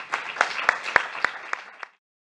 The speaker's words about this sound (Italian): Grazie davvero, io farei un altro applauso.